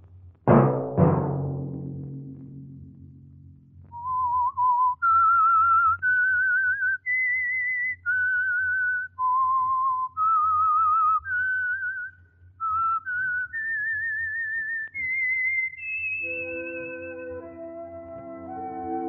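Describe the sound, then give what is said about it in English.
A lone whistler carries the slow, stepwise theme melody of the Signal Oil radio program The Whistler in sustained notes over a low, steady hum. It opens after two sharp, low thuds and closes as a brief orchestral chord swells in. “Let that whistle be your signal each Sunday for the Signal Oil program, The Whistler.”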